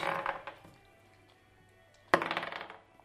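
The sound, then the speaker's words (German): Two bursts of dice clattering across a hard surface, the first fading out quickly, then a sharp rattling tumble that skitters and settles after a pause. Fairly loud, with no talking; the dice are rolled for a wisdom check. “Ihr äh, würfelt bitte mal ähm, mit Weisheit.”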